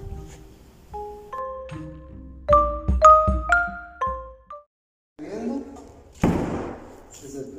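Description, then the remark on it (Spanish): A door is pushed open with a scraping rush and then shut with a loud, close thud, following a run of bright, stepped chime-like tones. “la puerta así. Fue lo que nos pasó.”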